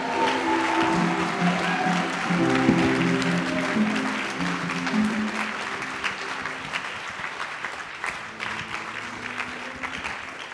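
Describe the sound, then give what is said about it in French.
A large crowd applauds steadily and loudly for about ten seconds, dense clapping mixed with cheering and raised voices that gradually thin out toward the end. “Acclamez très fort les seigneurs.”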